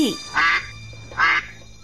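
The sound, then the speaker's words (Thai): Two short, bright quacks from a duckling walking back and forth on a path beside a pond in the late afternoon, evenly spaced about three-quarters of a second apart, clear over a faint steady background hum. “บนทางเดินของริมสระในบ่ายแก่ๆ วันหนึ่ง มีลูกเป็ดตัวหนึ่งเดินไปและเดินมา หน้าตาหงอยเหงา เพราะว่าไม่มีเพื่อน”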